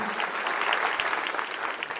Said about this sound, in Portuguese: vamos aplaudir o pessoal lá em cima, gente, por favor? Muito obrigado.